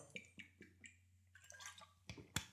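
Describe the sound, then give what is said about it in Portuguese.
Wet mouth sounds of someone sipping water: a few soft clicks and slurps, a brief pause, then a louder swallow and a final smack, with no talking. “só dar aqui um golito de água, desculpa lá.”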